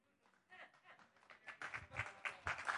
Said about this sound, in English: a round of applause. I was just trying to make a pause so I could get a drink, but thank you. Very kind. Very kind of you.